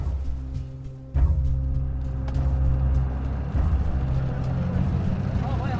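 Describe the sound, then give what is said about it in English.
A white pickup truck drives along, carrying people in the back out of ISIS territory, with a steady engine drone and road rumble. The engine gets louder a second in and stays heavy throughout, with faint muffled voices in the mix. “After several hours in the back of a white pickup truck,”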